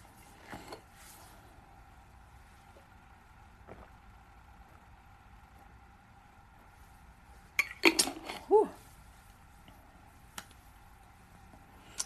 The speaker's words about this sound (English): That deserves a drink of water.